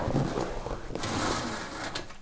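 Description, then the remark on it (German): A wire mesh filter is released from brackets at its bottom and pulled out of a kitchen hood: a steady, raspy metallic scraping and rattling lasting about two seconds, with a couple of brief clicks partway through. “Ähm, dann kann man es so rausziehen.”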